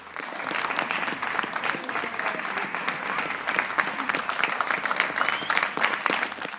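Steady, continuous applause with rapid overlapping claps, sustained at an even level from start to finish, fairly close and with no talking over it.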